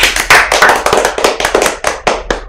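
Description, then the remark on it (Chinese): A quick burst of applause for learners who have made progress: sharp, bright claps fire in a fast, slightly uneven rhythm for a couple of seconds, fairly loud, with no voices over them. “对，我们还要为为为一些就是听完我们的 podcast 的学员而进步的这些人，给他们掌声一下。”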